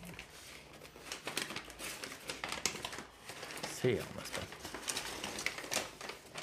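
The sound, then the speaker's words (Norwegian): Paper crinkles and rustles continuously in sharp, irregular bursts as taped paper wrapping is torn open and pulled apart to unwrap a roll of paper, while a person talks over it. “Han har fått en rull med papir. Oi, oi, oi. Bra. Enda mer teip på.”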